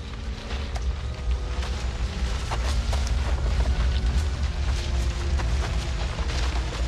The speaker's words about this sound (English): What is it? Earthquake! No worse! Lawnmower!